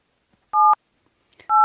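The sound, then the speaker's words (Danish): Two loud, steady push-button telephone dialing tones, each a short electronic beep, as a call is dialed on a push-button phone, separated by about a second of quiet with a few faint clicks just before the second tone. “bruge en tastetelefon for første gang i 10 år.”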